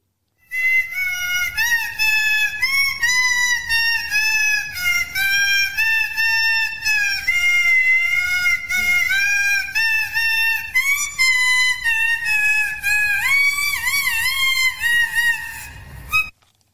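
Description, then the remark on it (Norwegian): A loud, shrill whistle plays a short jingle, a continuous reedy melody of stepping notes that wavers near the end and runs for about sixteen seconds without any talking. “Han må få eh, den gode jinglen vår med fløyta.”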